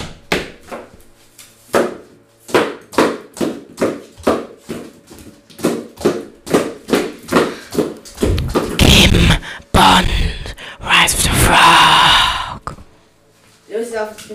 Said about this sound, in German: Titelmelodie, mein Lieber.